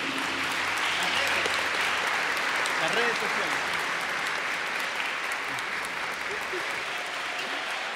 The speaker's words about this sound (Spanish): Así que un saludo de parte de ella y un aplauso así a distancia para que lo reciba.